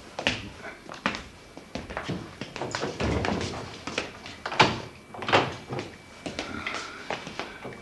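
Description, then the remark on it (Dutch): The middle door off a hall is opened amid a run of irregular wooden bumps, taps and rattling handling noises, a few sharper clunks standing out, with no one speaking. “de middelste deur moeten we”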